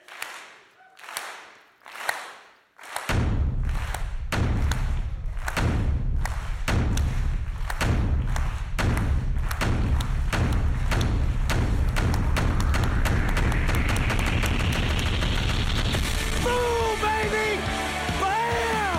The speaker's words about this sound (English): Hey, if you ain't clapping, you don't love Jesus. Yeah, yeah, here we go. You ready? Let's hear it.